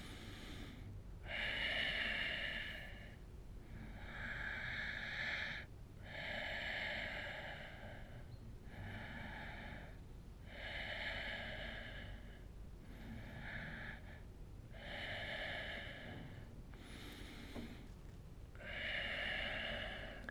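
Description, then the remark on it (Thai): Slow, deep breaths drawn in and pushed out in a steady cycle during yoga, holding the downward-facing dog pose for five breaths, each airy breath lasting a couple of seconds, fairly loud with no talking. “ยืดขาวางส้นเท้าในท่าสุนัขก้มจุดนี้ค้างท่าไว้5ลมหายใจเข้าออกครับ”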